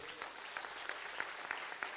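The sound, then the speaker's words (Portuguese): An audience applauds God in a dense, steady wash of clapping at a fairly soft level, with a few sharper claps standing out at roughly regular intervals, and no voices. “Quantos aplaudem a Deus aqui?”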